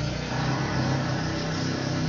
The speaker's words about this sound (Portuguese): Passou uma moto peidando agora.